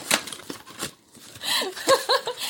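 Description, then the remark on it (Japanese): A paper candy box is ripped and crinkled in several short bursts as it is taken apart for disposal and separated into plastic and paper, with a brief breathy laugh or vocal murmur mixed in near the end. “はい、ちゃんと解体しました。ちゃんとプラと紙に分けてしてます。”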